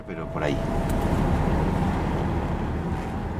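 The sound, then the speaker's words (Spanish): A car driving toward the railway station in La Roda, with a steady low rumble of engine and road noise that holds evenly for a few seconds after a brief swish at the start. “Mientras nos acercábamos en coche a la estación”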